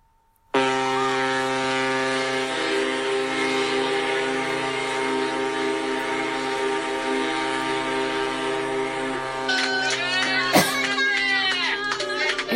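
Several deep horns of ships moored in Yokohama harbour blast together at midnight on New Year, a sustained, droning chord that holds steadily for over ten seconds, with higher horn tones and a brief sharp burst joining near the end.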